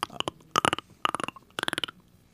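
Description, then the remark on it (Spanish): A voice imitates a dolphin with a beatbox tongue roll: three short bursts of fast rattling clicks mixed with squeaky whistle tones, fairly loud, with brief pauses between them. “Bueno, oye, en el beatbox se conocería como eh, tongue roll.”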